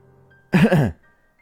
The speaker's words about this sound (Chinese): 他不自然的清了清嗓子，温柔的说道：